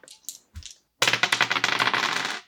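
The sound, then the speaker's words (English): A few light clicks, then a dense clatter of dice rattling and tumbling across a table for about a second and a half, with no voices. “Dice roll plus sharp”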